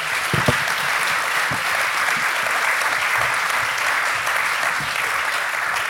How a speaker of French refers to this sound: Donc, merci beaucoup. Et vous, vous êtes content, hein Voilà, je crois qu'on peut les applaudir et on va.